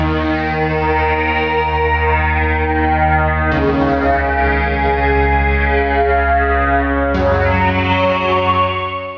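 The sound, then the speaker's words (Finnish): A loud, sustained Yamaha DX7 synthesizer tone with rich, bright harmonics, playing three long held notes or chords that shift at two points, heard alone with no talking. “nimenomaan mainita tuo Yamaha DX7”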